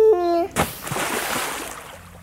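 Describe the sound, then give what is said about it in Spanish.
A short squeaky, tonal chirp gives way to a sudden loud splash of water as a baby throws an armful of toys into a bathtub, followed by scattered splattering and sloshing across the bathroom that fades over about a second and a half. “arrojó todos los juguetes a la bañera, provocando un salpicadero de agua por todo el cuarto de baño.”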